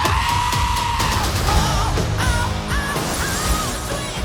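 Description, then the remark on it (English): Loud, shrill screams of the giant goats from the film Thor: Love and Thunder ring out several times in succession, wavering and bleating, layered over a dense, busy background of noise and music. “and giant goats. Oh, look at those! They are wonderful. Yes, they are. They also scream quite a lot.”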